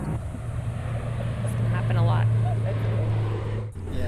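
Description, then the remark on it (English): A military jet from Davis-Monthan Air Force Base roars overhead, heard from the parking lot of the Julia Keen School in Tucson: a loud, continuous rumbling drone that swells to a peak midway through, then eases slightly before cutting off. “You can hear noisy cicadas in the trees and the jets from Davis Monthan Air Force Base.”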